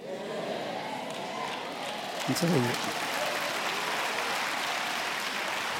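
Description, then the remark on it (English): An audience claps steadily throughout, a dense, even patter of many hands with no clear breaks, while a single voice briefly calls out over it partway through. “Look at your neighbor who's not clapping.”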